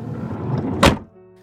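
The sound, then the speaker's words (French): A van's sliding door rolls along its track and slams shut with a single loud thunk, followed by a low steady hum as the sound settles. “en fermant la porte coulissante du van”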